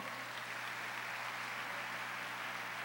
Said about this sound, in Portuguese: Pode aplaudir o Senhor.